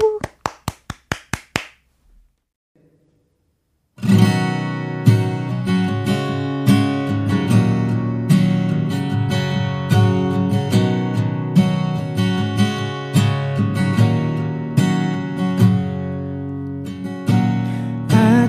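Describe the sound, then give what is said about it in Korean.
A brief burst of audience clapping fades into a short silence, then a single acoustic guitar starts a live acoustic version of a song originally arranged for a band, strumming full, steady chords with a warm low end and regular rhythmic accents. “어, 이번에는 통기타 한 대로 어쿠스틱 버전으로 들려드리겠습니다.”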